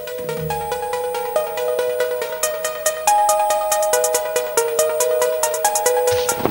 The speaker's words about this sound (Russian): Э, ну, видно опять, как в прошлый раз, рэпчик какой-то. Ну, чушь, что менее качественный, чем прошлый э, по звукорежиссерской, с звукорежиссерской точки зрения.